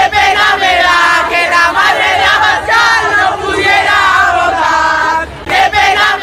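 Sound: protesters chanting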